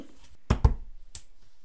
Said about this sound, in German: das war ein erbärmlicher Klatscher.